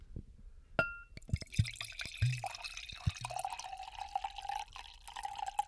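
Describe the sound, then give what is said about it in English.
A few clinks and drips, then a drink is poured steadily into a wine glass with a fizzy splashing stream whose tone slowly rises as the glass fills. No voices. “sounds like soda on the microphone.”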